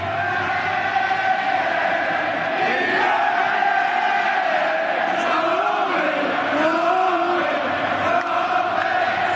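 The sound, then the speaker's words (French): A huge stadium crowd at an Ireland match sings a song together, thousands of voices merging into a loud, steady roar with a rising and falling melody running through it, continuous for the whole stretch. “Et il y, y, a une petite polémique avec l'Irlande aussi, parce que dans le stade, on entend ça quand l'Irlande joue.”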